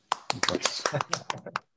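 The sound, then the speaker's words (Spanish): Scattered applause from a small audience welcoming dubbing maestro Enzo Fortuni: a dozen or so sharp, irregular hand claps over about two seconds, fairly loud, with voices mixed in. “Quiero que recibamos con un fuerte, fuerte, fuerte aplauso al maestro Enzo Fortuni.”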